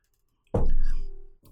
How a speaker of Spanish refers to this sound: Voy a ver un trago de café.